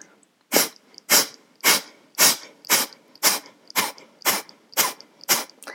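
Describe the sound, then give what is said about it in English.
About ten sharp, forceful exhalations through the nose in the Kapalbhati yoga breathing practice, evenly paced at roughly two per second, each a short breathy hiss, fairly loud with no talking. “So if you Google Kapalbhati, you will again get tons of benefits, and you will also know how to practice it but it is uh, throwing out the breath, exasperated exhaling.”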